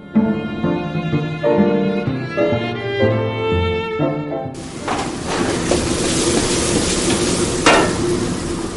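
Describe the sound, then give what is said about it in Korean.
A short tonal musical phrase gives way to loud, steady sizzling of food being stir-fried and fried in a hot wok in a Chinese restaurant kitchen in Alhambra, near Los Angeles, USA, with occasional metallic scrapes of stirring and no voices. “볶고 튀기는 요리 소리와 맛있는 냄새가 가게 안을 가득 메웁니다.”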